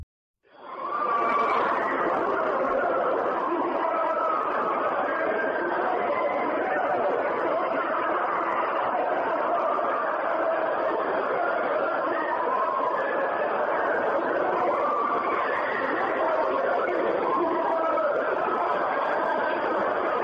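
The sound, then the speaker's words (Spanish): A steady, dense wall of overlapping screams and wailing voices, hellish and distorted, smeared together with a thin high whine running through it for twenty seconds, recorded by a microphone lowered to the full depth of a deep borehole. “Sí, eso me suena a gritos del, infierno, ¿eh?”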